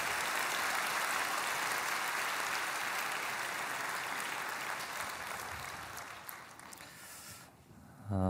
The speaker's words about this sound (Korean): 아, 그리고 인천 온누리교회 연합 찬양 사역팀 새벽 3시에 출발하셨답니다. 우리 다시 한번 격려의 박수로 축복해 주시기 바랍니다.